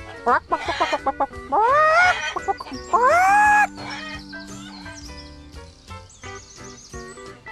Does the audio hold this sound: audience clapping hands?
no